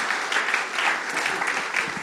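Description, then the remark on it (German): Steady applause from an audience clapping for the helpers, dense clapping filling the space continuously at moderate loudness, with no individual claps standing out. “Und nochmal Applaus für euch, Helfer.”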